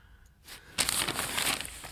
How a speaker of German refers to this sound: an seinem Schreibtisch sitzend und Kaffee trinkend, blättert sich durch die Zeitung.